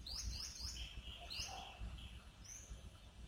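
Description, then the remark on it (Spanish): Several birds sing and chirp at sunrise in palm and coconut trees by a tropical beach, with quick repeated whistled phrases and short calls overlapping, set against a steady low ambient rumble. “El sol acaba de salir y empiezan a cantar los primeros pájaros provenientes de las palmeras y cocoteros que te rodean.”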